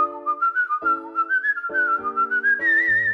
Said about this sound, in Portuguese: Portanto, ele passa a viagem a assobiar. Eu aprendi a assobiar com ele. Então fazemos um duo dinâmico de assobios. E ele vai-me corrigindo.